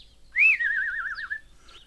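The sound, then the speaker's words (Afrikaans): A small shiny whistle, found on the floor of a parrot's cage, is rubbed clean and blown once, giving a bright, trilling note that wavers rapidly for about a second before stopping, clear with no voices. “Hy vryf die vletjie skoon en blaas dit.”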